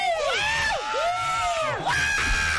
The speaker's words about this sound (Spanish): primero crowd, no, oh, primero crowd, gente, gente, gente gritando.